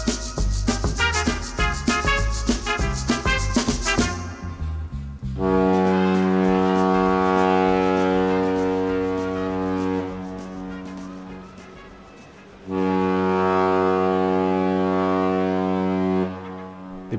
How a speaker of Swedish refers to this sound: Ja, det tutar.